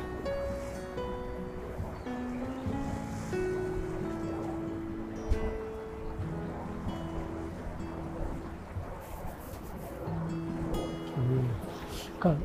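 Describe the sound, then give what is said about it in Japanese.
Steady outdoor seaside ambience, a continuous wash of wind and lapping waves with a faint boat hum, while a person talks throughout; boats and yachts float on the sea around 1 p.m., many people are windsurfing, and the day is overcast and rainy-looking. “ちょうどね、今、ボートとかが浮かんでたりとかしてて、海のヨット、ボート、いい感じですね。”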